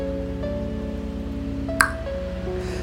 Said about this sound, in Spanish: se tronó esa burbuja